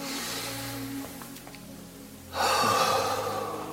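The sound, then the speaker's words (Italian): A single deep breath drawn in during a guided exercise for a headache, a long airy inhale that swells loudly near the end, with a low hum underneath and no talking. “esterno il polso, interno il polso, un respiro profondo”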